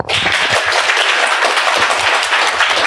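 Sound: audience applause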